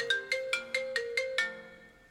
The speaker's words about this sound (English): Oh. oh, got a phone call, yeah. This could be him.